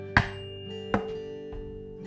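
A tuning fork is struck three times with sharp taps, each followed by a steady, pure A tone that rings on quietly between strikes, with no voices.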